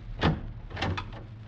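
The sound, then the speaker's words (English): The door of a studio opens quietly with a soft scrape and a few light creaks and knocks spread over a second or so, over a low steady hum and no voices. “The man across the room, half reclining on the couch, his back turned toward me, did not hear the opening of the door.”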